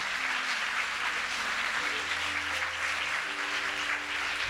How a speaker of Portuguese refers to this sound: Ou aplauda Jesus Cristo aí bem forte.